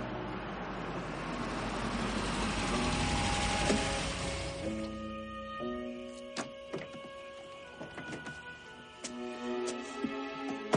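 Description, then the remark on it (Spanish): A van pulls up at a two-storey house with an attic, surrounded by trees, with a broad rumble of engine and road noise that eases off and settles into a low, steady idle hum, followed by a few sharp clicks and knocks. “Detiene la furgoneta y bajan.”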